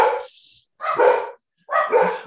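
A dog named Watson barks from a distance, upstairs in the house, three drawn-out, slightly muffled barks with short pauses between them, and no voices alongside.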